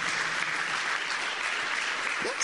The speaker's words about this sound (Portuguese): Put your hands together for the Lord. Mas de palmas para o Senhor.